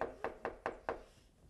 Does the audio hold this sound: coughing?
no